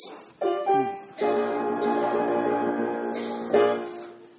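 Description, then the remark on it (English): A loud holler blues strain, the third strain of an early jazz piece, with a group of voices yelling together, sustained and dense, briefly dipping before swelling again near the end. “And then the, the third strain is something that a lot of you will probably recognize if I tell you that it's the holler blues effect uh, and it sounds like this.”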